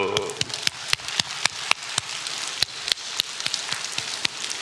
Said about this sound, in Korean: 자, 박수를 좀 쳐보겠습니다. 자, 손목 박수, 손가락 박수, 손등 박수.